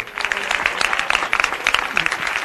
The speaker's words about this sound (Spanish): Le dejamos los aplausos.